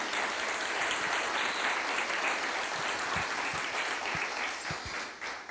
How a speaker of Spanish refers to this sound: Si va a aplaudir, aplauda bien. Si no...